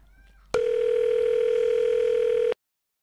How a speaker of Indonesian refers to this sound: Kita uh, telepon? Telepon deh. Oke oke, kita telepon sebentar.